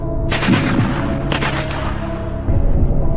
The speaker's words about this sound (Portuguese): mas seus filhos evitaram e 12 poloneses morreram na troca de tiros.